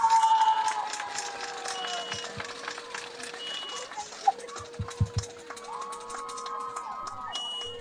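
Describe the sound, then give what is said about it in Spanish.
A crowd applauds and cheers at a campaign rally in Cárdenas for PAN and Movimiento Ciudadano candidate Arturo Hernández Vargas, a steady dense wash of clapping and shouting voices with a few sharp thumps and whistle-like tones rising through the noise. “¡Fuerte el aplauso!”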